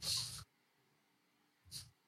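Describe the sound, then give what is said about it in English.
A voice imitates a giant rat, the size of a group of people, sniffing really close to someone's face, with a long, loud, breathy sniff followed after a pause by a shorter one. “However, this rat is the size of all of you combined and then a little more. And it starts sniffing really close to your face”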